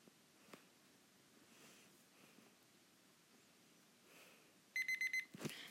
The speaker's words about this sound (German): Timer ist zu Ende, Leute.